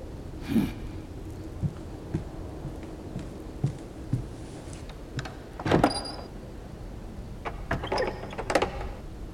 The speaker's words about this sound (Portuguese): Ele tenta fechar a porta, mas o quadro impede. Impaciente, ele bate a porta contra a moldura com força, grunhindo. Após algumas tentativas sem sucesso, ele percebe que alguma coisa está bloqueando o vão.